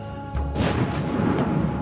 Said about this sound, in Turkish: Bir patlamayla irkildi Süleyman.